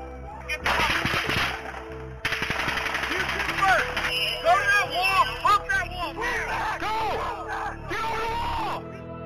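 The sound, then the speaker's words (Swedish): A rapid burst of sharp, loud gunshots cracks out in a rough, muffled recording from a police officer's body camera as an officer is shot, followed by agitated shouting voices and commotion. “Officer … is shot. The moment captured on another officer's body camera.”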